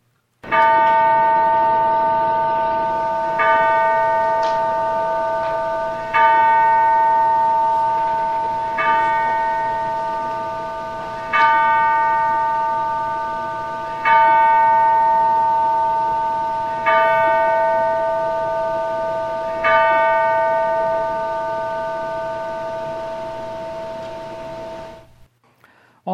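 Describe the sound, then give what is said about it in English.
A single church bell tolls slowly and steadily, about eight deep strikes roughly three seconds apart, each ringing out and overlapping the fading hum of the last. No voices are heard. “While the bell tolls, take time to remember and name in your heart your loved ones and friends who are now with the Lord.”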